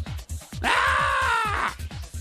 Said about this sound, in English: And that's just you screaming because you're, you're like over it. Yeah, it's over, baby.